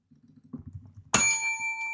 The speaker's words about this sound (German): Die Glocke ähm, macht das witzig.